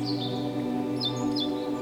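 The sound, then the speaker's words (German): A few short, high bird chirps flutter in at the start and again near the middle, faint, over a steady low humming drone that fills the background; birds singing on a sunny early-summer walk in Dartmoor. “Die Luft ist angefüllt vom Zwitschern der Vögel.”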